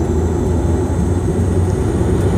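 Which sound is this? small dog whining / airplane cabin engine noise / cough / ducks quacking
airplane cabin engine noise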